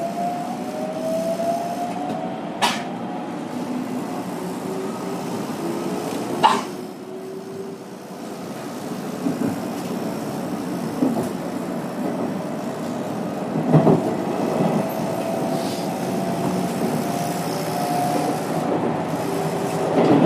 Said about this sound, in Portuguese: E aí, nesse momento, a gente entra e aí você já vai ouvindo na próxima sessão o som de dentro do trem. Aí vai ter um sinal, a porta ela vai se fechar e o trem vai sair para a gente aí passar alguns minutos nesse trajeto.